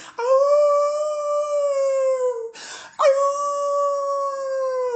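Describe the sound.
A voice imitates a wolf's howl with two long, steady howls, each lasting a couple of seconds, separated by a brief audible breath, howling at the rising full moon by the Pacific Ocean.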